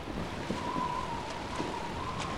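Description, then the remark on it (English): Steady rush of ocean waves and churning water as a whale rises and falls, tons of water falling upon its hump; a continuous broad roar with a few soft splashes breaking through, fairly loud, no one speaking. “There was enormous wallowing sound, and the whale rose and fell, tons of water falling upon its hump.”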